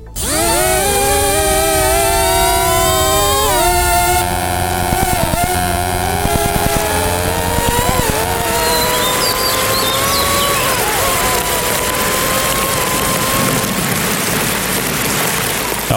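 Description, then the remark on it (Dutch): A rain-making drone's electric motors whine loudly and steadily, pitch rising and wavering as it flies up into the sky, giving small electric shocks to the clouds, with a sharp electric crackle mid-clip and a constant hiss like rain underneath. “Als de drone de lucht ingaat, geeft het kleine elektrische schokjes aan de wolken.”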